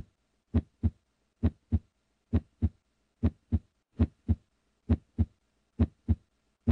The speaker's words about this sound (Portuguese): E por enquanto você escuta, os batimentos cardíacos.